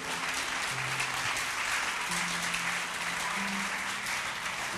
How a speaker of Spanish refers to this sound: Dele un aplauso al Señor que es grande y poderoso.